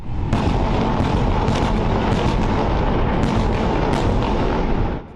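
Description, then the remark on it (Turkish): A dense, continuous barrage of heavy explosions and rumbling blasts in Tel Aviv, loud and sustained for several seconds with repeated sharp bursts layered over a deep roar, then cutting off abruptly. “Tel Aviv'de ard arda patlamalar yaşandı.”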